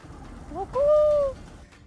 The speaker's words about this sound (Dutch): Betekent het A, koeren, eh, dat is het geluid van een duif.